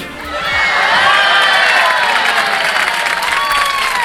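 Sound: audience applause and cheering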